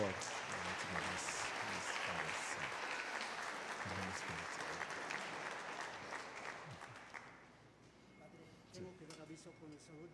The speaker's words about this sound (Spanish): Felicidades. Un fuerte aplauso por ellos, por favor.